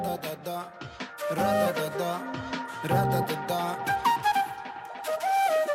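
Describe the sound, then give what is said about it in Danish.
A Celtic flute plays a lilting melody over a full band accompaniment at the start of a song, its bright sustained notes gliding and ornamented, loud. “Og her der skal vi høre en, øh, ja, der er den, den keltiske fløjte”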